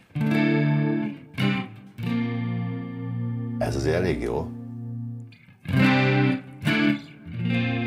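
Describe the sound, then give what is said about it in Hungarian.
An electric guitar plays sustained chords through a chorus and flanger effect, its tone swirling and wavering, with a sweeping, warbling passage midway. A voice briefly speaks over it. “Ember legyen a talpának, érzel ezt használja, de ez már kórus, de ez egy másik kórus, egy másik Franger.”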